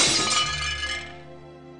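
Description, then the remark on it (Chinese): A glass jar, thrown down hard from overhead in the rain, smashes on the ground with a sharp, bright crash, followed by a short ring of tinkling shards that fades away over about a second. No voices. “我把手高高的举过头顶，把那罐子使劲摔了下来。”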